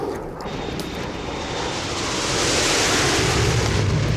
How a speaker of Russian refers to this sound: Вот примерно так это звучит, когда там летали над нами 16 немецких самолетов.